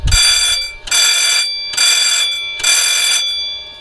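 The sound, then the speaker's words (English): A loud, shrill aircraft cockpit fire warning bell rings during a test in four rapid bursts of about half a second each, separated by short pauses, piercing with no voices. “We have a fire warning test bell.”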